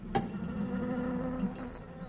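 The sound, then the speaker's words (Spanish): Wasps buzz inside a bottle in a laboratory, a steady, continuous drone with a slightly hollow, enclosed tone, with a brief sharp click near the start. “tiene avispas en una botella.”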